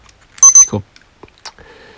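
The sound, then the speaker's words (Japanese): Two quick, loud electronic beeps from a radio-controlled alarm clock set for 6:45, followed by soft handling thumps and a faint tone trailing off at the end. “この目覚ましで成功の成功のこれなんだっけあの電波時計のやつこれはね資格試験受ける時に時計が必要でねあのスマートフォンとかは机の上に出せないって言われてで時計が必要な場合は時計のやつを持ってきてくださいって言われたんでその時に買ったやつなんですよ。”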